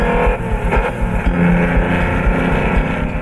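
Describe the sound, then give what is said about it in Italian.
A sports car engine growls steadily, its deep rumble rising and falling in short revving pulses throughout, loud and without any voices. “Gli affari vanno talmente bene che può anche dedicarsi ad un'altra sua grande passione, le auto sportive.”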